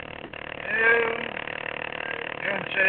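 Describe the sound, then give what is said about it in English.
A small desk fan sitting by a computer buzzes steadily, a continuous motor-like hum that swells slightly at moments, with a faint voice murmuring in the background. “Yeah, what was that buzzing I heard? My, my little fan sitting by the computer.”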